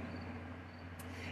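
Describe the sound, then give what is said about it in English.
Faint, steady chirping of crickets outside as a storm approaches, a thin continuous trill over a low background hum, with one brief brighter chirp partway through. No one speaks. “They're out there chirping. They're really loud.”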